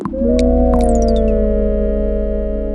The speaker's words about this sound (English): The music doles out chill synthesizer pads with little beeps, chirps, and dings happening in time with the music as you grow your city.